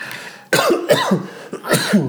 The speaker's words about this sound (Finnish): no niin, siinä tuli nyt minun yskä takaisin.